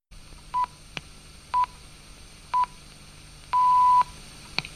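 A radio's hourly time signal marking 1 p.m. before the news: three short, evenly spaced electronic beeps one second apart, followed by a longer sustained beep of the same pitch, clear with no talking.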